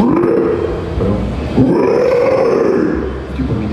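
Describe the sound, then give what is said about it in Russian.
A human voice performs a vocal growl imitating a bear or lion, producing a deep, rough, sustained roar, loud, with a brief swell midway and no other talking. “медведя, типа такого какого-то льва делали.”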